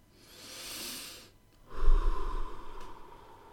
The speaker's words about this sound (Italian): la voce di una donna molto rilassante, più o meno così dice ascolta il tuo, segui il tuo eh, respiro. Prova a respirare in questo modo.